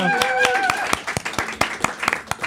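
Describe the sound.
An audience applauds with sharp, distinct hand claps at a quick, fairly steady rhythm. A brief voiced cheer rings out over the opening claps, then the clapping continues alone.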